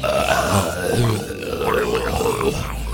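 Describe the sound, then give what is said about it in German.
An undead creature turns around and grunts and groans in a steady, guttural stream, its rough voice rising and falling for several seconds, fairly loud with no talking. “Immer wieder mal reißt ein solcher Lichtfaden aus dem Mund eines sich wiegenden Wesens ab und dieses wiegende Wesen dreht sich sofort um, gibt grunzende Geräusche von sich”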